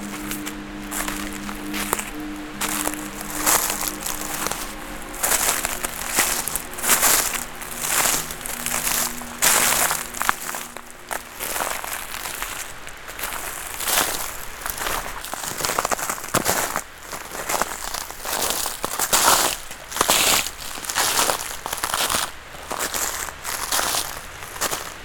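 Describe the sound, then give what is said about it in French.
Footsteps crunch steadily over frozen mountain ground, through patches of snow mixed with dry dead leaves. A continuous crackling, crinkling texture with a regular walking rhythm and no voices. “La montagne qui crépite à vos oreilles.”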